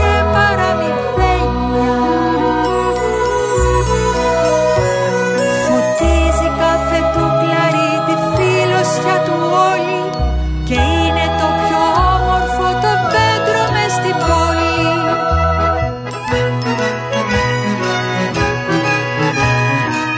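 A Greek song with a female singer over full, steady instrumentation, with a strong bass line and bright layered tones, playing loudly and continuously throughout.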